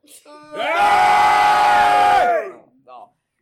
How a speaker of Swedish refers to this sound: Kan vi bara höra alla... Man skriker allihopa en gång.